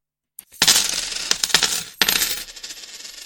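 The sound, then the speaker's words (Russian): Coins drop and clatter, a bright metallic jingle that rings and scatters for a couple of seconds, briefly pauses, then tinkles on and fades, with no voices. “Копеечка на микрофоны за, за все это время денег там не упало.”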